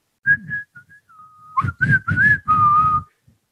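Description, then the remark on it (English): The PC Richard and Son promotional whistle as played at a stadium: a person whistles a short, bright jingle-like melody, several rising and falling notes ending on a sustained tone, loud and clear with no talking. “So, for example, my number five, the PC Richard and Sons whistle,”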